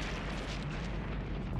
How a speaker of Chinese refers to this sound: 两个人在外面约莫等了五六分钟，见洞里面没什么动静，便起身朝洞口走去。就在两个人离洞口五十米远的地方，突然一声巨响从洞内发出，